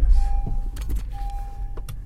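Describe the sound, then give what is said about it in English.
Car power windows whir open with a steady motorized hum after the car is turned on, in a car parked at a Whole Foods, over a low idling engine rumble, punctuated by a few short clicks and thumps. “So this will be my great lunch here sitting in the car can turn the car on to open the windows, I guess,”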